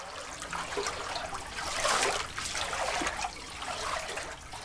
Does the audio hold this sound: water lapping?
yes